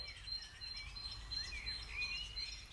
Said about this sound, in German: Betrachtet den Vogel, er ist einfach da.